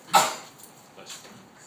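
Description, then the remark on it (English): A single sharp, explosive sneeze bursts out at the start, loud and breathy, then fades into a quiet stretch of faint background noise. “Bless you.”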